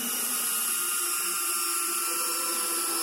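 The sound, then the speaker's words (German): A cordless screwdriver whirs at a high, steady pitch for about three seconds while driving in two large screws, a continuous motorized buzz with bright tonal overtones and no talking. “Mit diesem Akkuschrauber habe ich die”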